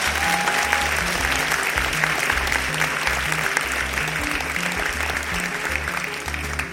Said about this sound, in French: Applaudissez Judith, s'il vous plaît.